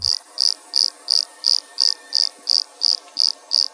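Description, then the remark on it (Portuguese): A Pitanga pumpkin toadlet, a tiny frog smaller than a 50-centavo coin, calling: a steady series of about eleven short, high-pitched chirping notes, evenly spaced a third of a second apart, clear with no voices. “E agora a gente vai ouvir a vocalização do sapinho Pitanga.”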